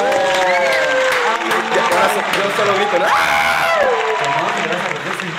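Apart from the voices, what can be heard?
fake applause sound effect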